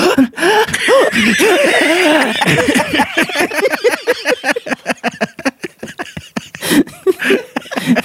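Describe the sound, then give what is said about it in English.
A single voice makes rapid, repeated gasps, a quick rhythmic string of sharp breathy intakes that speeds up and keeps going, loud, an imitation of someone gasping uncontrollably. “This caused her to gasp uncontrollably.”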